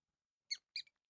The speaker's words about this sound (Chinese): 这回老小虎也听清楚了，这是老鼠在那叫呢。嘿，你们家进老鼠了，赶紧弄点药。